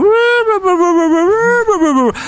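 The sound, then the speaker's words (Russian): A voice imitates a monotone wail, holding one loud, steady drawn-out note for about two seconds with only slight wavering before it breaks off. There are no words in it. “Слышу какой-то голос такой, кто-то завывает.”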